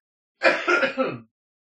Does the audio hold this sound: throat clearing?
yes